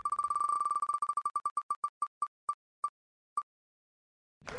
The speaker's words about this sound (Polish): Ale słuchajcie, przechodzimy do, e, do kręcenia kołem, ponieważ zostały nam jeszcze dwie kategorie.